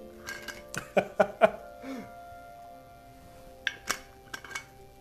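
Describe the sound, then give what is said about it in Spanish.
Someone drinking water from a bottle: a quick run of three or four clicks and clinks from the bottle, a pause, then a few soft gulping or throat sounds, with no talking. “Voy a tomar agua, ya se me resecó la boca.”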